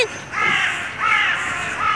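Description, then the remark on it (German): A crow caws three times in a steady rhythm, each harsh, raspy call loud, with no talking over it. “dann die Kreie, die immer wieder uns, ich habe das Gefühl, die Kreie verfolgt uns.”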